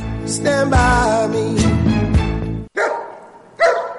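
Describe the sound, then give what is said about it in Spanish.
A dog, Rodolfo, barks loudly in a radio advert for the veterinary clinic Salud Animal, about five sharp barks in quick succession with a brief pause near the end, over a steady low background hum. “Hola, soy Rodolfo, el perro más seductor del barrio.”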